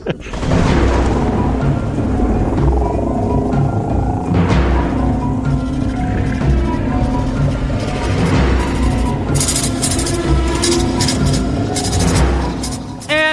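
A loud, continuous thunderstorm: deep rolling thunder rumbles over a steady wash of heavy rain, with surges of thunder swelling and fading throughout and no clear speech.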